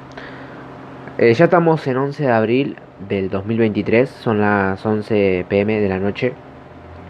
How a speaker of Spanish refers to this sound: No, eh, si escuchan un ruido de fondo es por el ventilador que hace un toque de calorcito, entonces lo aprendí por eso, porque hace calor.